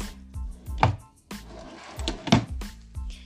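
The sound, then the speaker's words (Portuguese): Wooden dresser drawers slide open and shut several times in quick succession as the clothes in them are checked, with two louder thumps standing out among softer scrapes and knocks, with no voices. “Em seguida, com a testa franzida, abriu as gavetas da cômoda e conferiu as roupas.”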